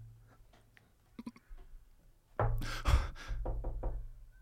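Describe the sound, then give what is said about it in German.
A series of sharp knocks on a hard surface, a few quick raps early on followed by a louder, denser cluster of close knocks, with a low hum underneath. “Einmal klopfen ist gar nichts.”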